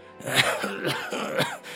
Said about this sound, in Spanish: Comentó con una carcajada hueca y ronca que pronto degeneró en una espesa tos de fumador.